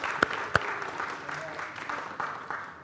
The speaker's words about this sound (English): And everybody clap for the kids so that they feel they, they we, we know they're important. We love our kids.